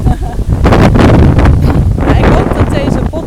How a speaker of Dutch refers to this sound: Oh, we waaien bijna weg.